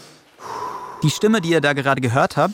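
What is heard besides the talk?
heavy panting breath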